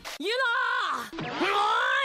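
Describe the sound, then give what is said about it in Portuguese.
An animated character screams in two loud, drawn-out bursts, the strained voice rising and wavering in pitch with a brief break between them, with no background sound. “Bruno, coloca cada um gritando aí, Bruno, para todo mundo saber quem é que tá falando.”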